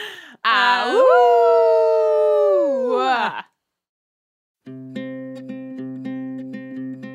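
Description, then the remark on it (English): A person howls like a wolf in one long, loud, wavering cry that slowly falls in pitch and cuts off. After a short silence, steady droning musical tones begin. “We love self explanatory menu tabs, Buffy the Vampire Slayer, and howling like a couple of wolves.”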